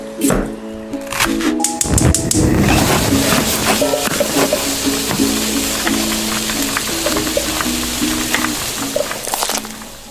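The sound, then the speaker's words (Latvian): Food sizzles and fries loudly in a pan, a steady hiss scattered with sharp crackles and pops that keeps going throughout, with a faint tonal hum and occasional clatter underneath. “Tā izklausās gatavošana, bet darbi virtuvē prasa arī zināmu drošību.”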